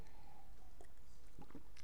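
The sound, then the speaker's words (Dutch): A quiet sip of water: soft slurping and wet mouth sounds, then a brief swallow and gulp near the end. There is no talking and little else in the background. “Even een slokje water, sorry.”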